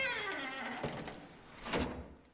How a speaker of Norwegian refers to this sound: Får ta gå ut igjen her, da. Jeg lukker igjen døra.